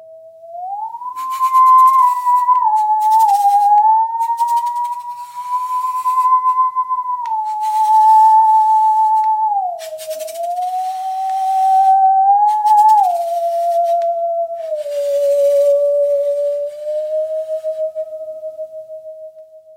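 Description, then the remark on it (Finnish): A musical saw sings a slow, wavering melody, its pure eerie tone gliding smoothly between notes with a gentle vibrato, heard alone and fairly loud throughout. “tuokse sahan taas mukaan sun juhliin ja soitat taas meille”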